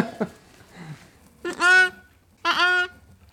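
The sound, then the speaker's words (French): Two loud ewe bleats a second apart, each a wavering, nasal baa lasting under half a second, with a quiet, breathy background between them. “Pour nous, un, bellement de brebis, ça ressemble à un autre bellement de brebis.”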